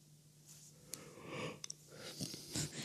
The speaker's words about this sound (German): hat gerade ja. gegähnt. Oh ja, es, es, tut mir leid, ich bin irgendwie.